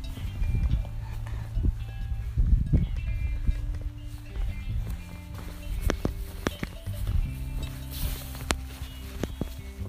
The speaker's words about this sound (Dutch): En we lopen hier allemaal van die kleine keitjes, zeg maar van die kinderkopjes. Moeten we naar beneden